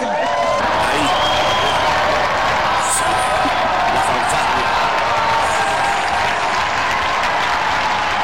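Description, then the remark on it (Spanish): A dense, steady burst of applause with cheering and a few whoops rising over it, loud and continuous for the whole stretch, with crowd voices mixed into the clapping, celebrating one month on EWTN, the worldwide Catholic radio. “aplausos! ¡Bravo!”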